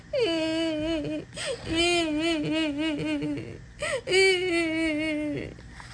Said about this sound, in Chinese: 突然传来哭声，哎，到底是谁在哭啊？